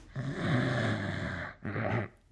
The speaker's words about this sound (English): Claude himself lay flat against the left wall, naked and snoring.